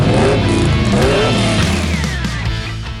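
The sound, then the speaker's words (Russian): A car engine revs loudly and steadily, its pitch sweeping upward as it accelerates, used as a jingle opening a radio segment about cars, filling the whole short burst without any voices. “Дави на газ.”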